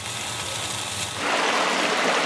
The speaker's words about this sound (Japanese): あなたもこんな音で癒されてみませんかステーキを焼く音